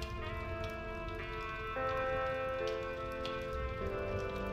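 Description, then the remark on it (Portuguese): A fireplace crackles with a steady patter of small pops and snaps, continuous, beneath sustained tones of old-style music playing softly from a gramophone. No one speaks. “Assim ficamos, embalados pelo som do gramofone e do crepitar da lareira.”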